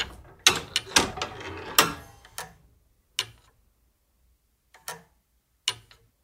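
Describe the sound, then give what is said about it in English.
The mechanical clockwork of a big tower clock clanks and ratchets, a dense burst of metallic clicks at first, then spaced single ticks with quiet gaps between them. No one speaks. “we managed to get those people who are collecting those big tower clocks”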